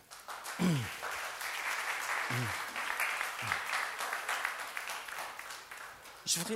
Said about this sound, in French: On peut les applaudir.